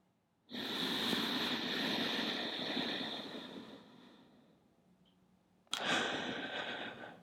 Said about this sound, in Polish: Bierzesz głęboki wdech nosem i dwa razy dłuższy wydech również nosem.